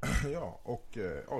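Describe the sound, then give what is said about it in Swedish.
A single short throat clearing at the start, then a person talks with hesitant filler words. “en harkling vart det där.”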